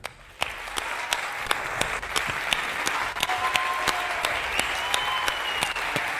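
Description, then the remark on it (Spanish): An audience at an award presentation breaks into steady applause for the leader of the JPod organization. The applause starts suddenly and keeps going, a dense wash of many hands clapping with sharper individual claps standing out at a fairly even loud level. “Y para presentar el premio tenemos además un fuerte, fuertísimo aplauso al, al digamos, eh, líder, cabeza de la organización de estas JPod”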